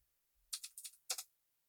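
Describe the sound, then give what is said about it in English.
A short burst of typing on a computer keyboard while pulling up a large spreadsheet of college football stats: a quick cluster of crisp key clicks, a brief pause, then a couple more taps, fairly soft with no voices. “I'm typing here in the background if you guys can't hear me assuming you can though.”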